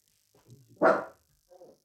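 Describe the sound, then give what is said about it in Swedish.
A dog named Mino lets out one loud, sharp bark, preceded by low grumbling whines and followed by a brief softer yip, with no talking over it. “Mino, tyst vi pratar ju.”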